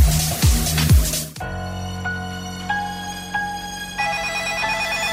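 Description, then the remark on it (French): A telephone rings as a suspect calls, in a radio segment on CJMD: an electronic, ringtone-like pattern of short repeated beeps over a sustained droning tone, following a burst of whooshing, sweeping noise at the start. “Le suspect appelle dans le 92. Oh, allô, salut LIM.”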